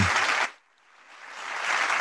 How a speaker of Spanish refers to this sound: Un aplauso para Claudia Sheinbaum.